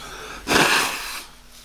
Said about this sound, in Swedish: Då kan jag snyta mig så länge medan alla fattar det då.